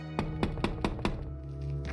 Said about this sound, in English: I hate the people who knock on the glass. Every single day, I have my hands full. They tip, tap, tap incessantly.